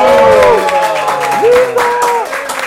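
A burst of applause welcoming a professor, dense rapid clapping held steady throughout, with voices whooping and cheering over it in rising and falling pitches.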